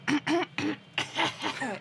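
A series of short coughs, about six abrupt bursts in quick succession with brief gaps between them, fairly loud and with no other sounds around them.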